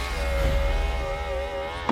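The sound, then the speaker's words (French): A car's rear power window lowers with a steady electric whine lasting over a second, over a low idling rumble, then stops with a brief thunk. “Seul le moteur nous brûle les tympans. La arrière descend telle une stripteaseuse”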